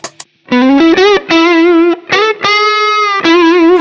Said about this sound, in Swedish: Det här är bara stärken och så, så här låter bara treble, treble boostern då.